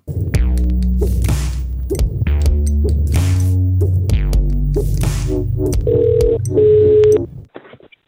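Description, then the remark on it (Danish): A phone number is keyed in as a quick string of loud, short electronic tones, then a steadier ringing tone follows before the line goes quiet. No one speaks. “Lad os lige prøve at ringe til Jesper. Jeg prøver lige at se at taste hans nummer her.”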